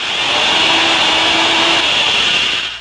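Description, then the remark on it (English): A steady, loud whining drone of a 3/16-inch drill boring into a new Uniroyal Royal Seal puncture-sealing rubber tire as a test, with a bright high hiss and a faint low tone, running continuously for a few seconds before easing off. “The sound you hear is a 3 16th inch drill boring into a new Royal Seal Uniroyal tire.”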